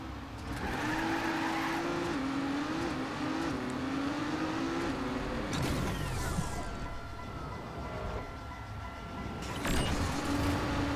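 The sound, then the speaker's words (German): A video game car engine revs and drones steadily, its pitch climbing and dropping through gear changes, with a brief whoosh midway and a burst near the end; no voices. “Und in den Checkpoints geht halt der Motor wieder an.”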